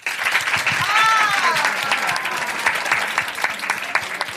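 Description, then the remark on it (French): An audience breaks into steady, dense applause to answer a question by applauding, the clapping carrying through the whole moment, with a brief cheer or voice rising over it early on. “Mais du coup, qui aime parler de sexe par applaudissement dans le public”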